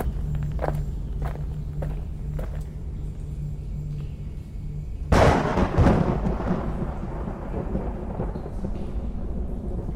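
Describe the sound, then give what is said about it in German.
Slow, evenly spaced footsteps tread through echoey corridors over a low steady hum as someone moves slowly and quietly, then a sudden loud rumbling burst erupts and gradually trails off into a muffled rumble. “Versuche mich nur langsam und geräuschlos durch die Gänge zu bewegen.”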